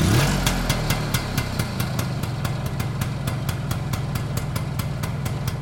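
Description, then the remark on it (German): A small engine of a Berlin motor scooter rated at 7.5 horsepower idles steadily with a rapid, regular putter and a low droning hum, running alone without voices. “Das ist ein Motorola Berlin. Er hatte 7,5 PS und damit konnte man mit zwei Personen und Kind drauf und Gepäck auf dem Gepäckträger bis zum geht nicht mehr, Zelt, Kochtöpfe und und und nach Thüringen fahren oder an die Ostsee”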